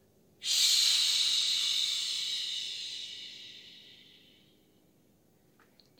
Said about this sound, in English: Shake out your arms. Nice job with your deep breathing.